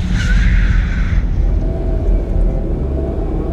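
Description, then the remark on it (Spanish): A car approaches and brakes, nearly hitting another car crossing the street on Calle Colón in Morón, Buenos Aires province: heavy low engine rumble, and a sharp tire squeal at the start of braking fades after about a second while the rumble continues. “voy a cruzar la calle con el auto y viene un auto, casi me choca y bueno.”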